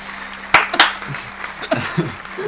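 Two sharp hand claps in quick succession, crisp and fairly loud, followed by a person talking quietly.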